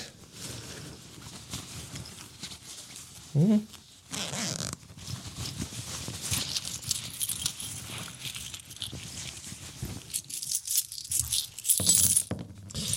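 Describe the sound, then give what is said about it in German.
Rustling of fabric and a zipper as someone digs through jacket pockets looking for a coin to toss, with soft clinks and shuffling, a brief sharp bump midway, and no speech. “Ich gucke mal, ob ich eventuell noch eine in der Jacke hätte.”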